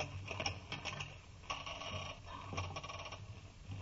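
A rusty lock grinds and clicks as it is turned open, with several scraping metallic clanks in uneven bursts, fairly quiet, no voices.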